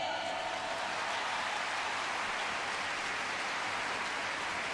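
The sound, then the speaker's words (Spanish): Steady, dense applause from a crowd for a telenovela actress, a continuous crackling wash of clapping at even loudness that fills the whole stretch without pause, with no voices over it. “Así que ese fuerte aplauso para ella.”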